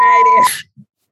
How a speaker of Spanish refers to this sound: Es más, ahí justo, va a salir un, pitido de censura. Déjame, hay que probarlo.